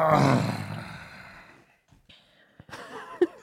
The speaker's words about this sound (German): Und seit ja. drei Jahren höre ich jedes Mal dieses angestrengte Stöhnen und das wird auch gefühlt von Folge zu Folge